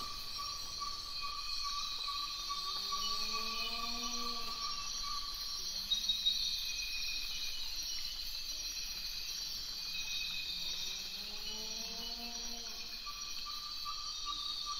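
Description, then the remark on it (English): Dense, remote Ecuadorian Amazon rainforest ambience, 1,200 miles from any village or road: a steady, shrill chorus of insects buzzes throughout, while two bouts of rising, wavering animal calls swell up beneath it, one early and one late. “Let's listen again to the Amazon, this time to the Ecuadorian Amazon.”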